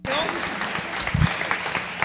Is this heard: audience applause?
yes